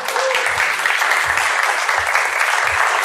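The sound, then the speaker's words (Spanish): An audience applauds steadily for about three seconds to welcome two guests, a dense, continuous wash of clapping that stays at an even loudness, with soft low thumps underneath and no one speaking. “Un aplauso, por favor.”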